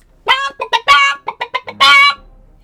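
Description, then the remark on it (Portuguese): A startled chicken clucks loudly, a quick run of sharp, agitated clucks ending in one longer, drawn-out squawk, with no talking. “Nesse momento, a galinha se assustou e cacarejou bem alto.”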